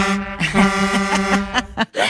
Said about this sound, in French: Il est frustré de ne pas en avoir, donc il a son petit klaxon personnel. Voilà, voilà, vous lui avez fait plaisir au passage.